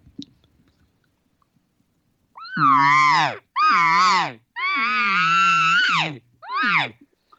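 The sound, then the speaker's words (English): A voice imitates an elk cow's contact buzz without the tube: four loud, nasal, raspy bursts, each about a second long, with short gaps between, clear with no other sounds. “she cannot find them, and she'll go through this buzz.”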